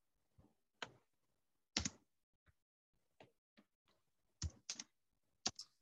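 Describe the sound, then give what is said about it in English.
Irregular bursts of keyboard typing, sharp clicks and clacks in small clusters with short pauses between them, fairly quiet, with no voices. “Are you typing? I am. Yeah, you can hear it.”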